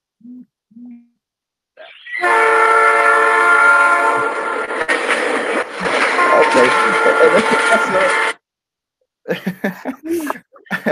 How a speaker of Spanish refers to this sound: La alarma, chavos. La, alarma, chavos. ya, llegó la hora.